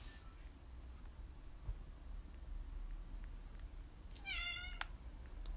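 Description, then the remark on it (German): A single cat meow rings out near the end, short and fairly clear, after several seconds of steady low background rumble with no one talking. “Sei ruhig, Katze.”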